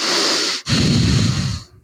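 Heavy breathing right up against a microphone: a hissy inhale, a brief pause, then a forceful exhale that buffets the mic with low, rumbling wind noise. No talking.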